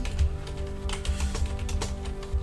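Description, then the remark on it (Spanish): Rapid, irregular computer keyboard clicks patter steadily over a low background hum, the keystrokes moderately loud with no one speaking. “Ah, Mis skills de tecleo ya estaba No, no, puedo alcanzar a ver el teclado en esta posición en el que estoy, pero...”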